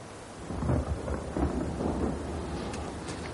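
Heavy rain pours steadily outside an open window with low rumbling thunder rolling underneath, a broad constant wash of storm noise, with no voices.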